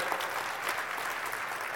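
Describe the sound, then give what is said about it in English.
Thin, scattered audience applause, a light patter of claps at a steady low level that never swells, lasting under two seconds with no voices over it. “that was the wimpiest applause I've ever had.”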